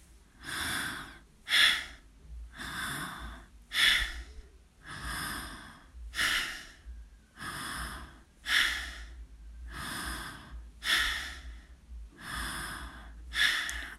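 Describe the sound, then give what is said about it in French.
Rapid, forceful bellows breathing through both nostrils only, done as a seated breathing exercise, in a steady rhythm, roughly one breath every second or so, each a sharp rushing puff, with no talking. “Euh, je n'ai pas précisé que la respiration, elle se fait uniquement avec les deux narines.”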